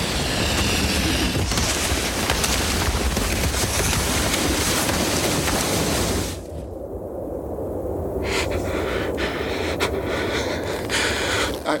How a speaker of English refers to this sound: What's that sound? Is that thunder? How could. Oh my god. Oh my god. An avalanche.